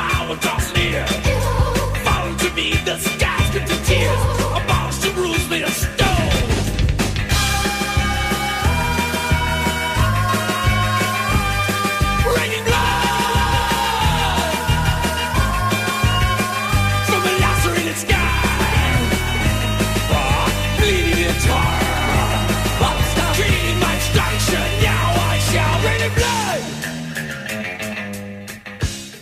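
A loud, continuous mashup blending heavy metal with upbeat new wave rock: a driving bass riff and full band under shouted, sung vocals, dropping slightly in level near the end.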